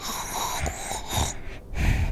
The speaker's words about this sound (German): es schnarcht irgendwas. Vielleicht sind wir geradewegs in einer Eisbärenhöhle gelandet.